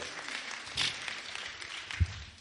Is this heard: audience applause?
yes